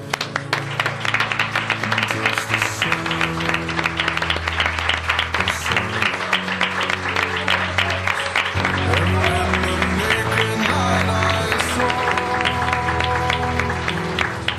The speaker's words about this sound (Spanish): vuelvo a repetir a mis compañeros que os merecéis el aplauso que ahora os vamos a dar.